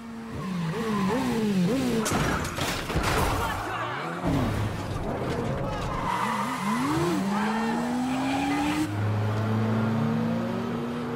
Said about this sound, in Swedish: Han åker motorcykel genom en tunnel där och det swishas här från de här stolparna. otroligt snyggt.